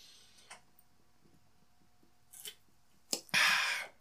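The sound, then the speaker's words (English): Someone gulps a cold carbonated caffeinated drink: a few soft, clicky swallowing sounds spaced out over several seconds, then a louder breathy exhale to finish. No one speaks. “So I'm gonna take a quick gulp of this here uh, cold carbonated caffeinated beverage”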